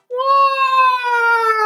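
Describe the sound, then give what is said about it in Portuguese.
A loud voice imitates a siren with one steady wailing tone that swoops up, holds, then sags slightly, lasting about a second and a half with no other sounds. “Fazia sirene.”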